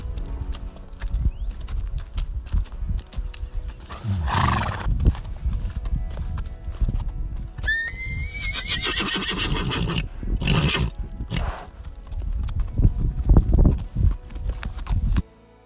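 Hooves clip-clop steadily throughout, and partway through a horse lets out a loud, quavering whinny. Nobody speaks.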